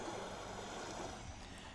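A steady, full-bodied roar of ocean surf, loud, forming an unbroken wash of white noise with no distinct breaks between waves and no voices.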